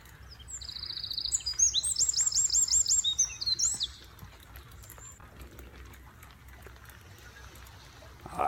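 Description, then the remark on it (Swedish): A bird sings a quick series of bright, high-pitched repeated notes for a few seconds in slightly rainy weather in Malax, then stops, leaving a quiet outdoor background with faint low rumble. “Kanske lätt irriterad över att det var lite regnigt i malax men vacker fågelsång.”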